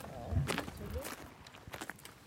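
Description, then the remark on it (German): A few unhurried footsteps of pilgrims crunch along at an easy walking pace, with faint indistinct voices murmuring in the background. “Gib noch ein paar Schritte, oder?”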